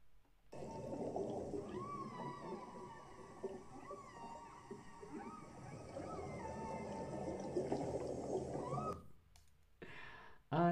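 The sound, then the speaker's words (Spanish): Underwater whale calls rise and fall in long, sweeping tones over a steady wash of clicks, continuing for several seconds before cutting off abruptly near the end. “me encantan las ballenas.”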